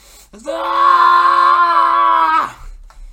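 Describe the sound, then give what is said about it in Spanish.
A loud, sustained human scream of frustration, about two seconds long, held at a steady strained pitch before cutting off sharply, voiced by someone acting out an enraged character with a knife in hand, with no other talk. “viendo la, la situación que no juega mucho en su favor, que digamos, eh, pone cara de rabia, impotencia y odio visceral con su cuchillo en mano que pega un grito de frustración”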